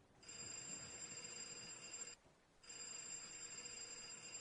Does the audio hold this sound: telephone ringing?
yes